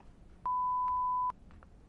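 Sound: answering machine message beep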